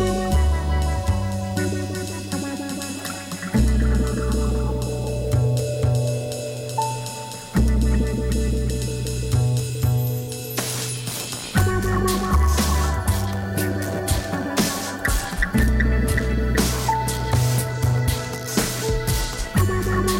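An electronic-flavored music remix plays loud and steady throughout, with a pulsing beat and layered synth textures that shift into new sections every few seconds.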